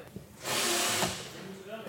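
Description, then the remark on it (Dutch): A power drill whirs during renovation work in a building, in a sustained burst of about a second, rising and then easing off, with people talking faintly in the background. “Er wordt ook verbouwd, uh, hoor ik.”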